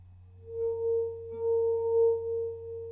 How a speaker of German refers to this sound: Ich kann's noch. Kennst du das aus der Kindheit, wenn man so über den Gläserrand fährt und dann da einen Ton macht?